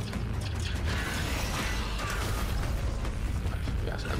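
A video game weapon reload plays out as a dense run of mechanical clacks, creaks and ratcheting clicks, steady and fairly loud throughout, with no voices.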